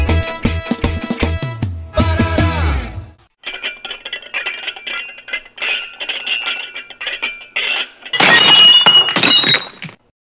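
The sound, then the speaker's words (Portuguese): Glass jars smash in a loud, clattering burst, followed by scattered tinkling shards and a final bright shattering crash near the end; no one speaks. “Foi você quem quebrou esses jarros de vidro?”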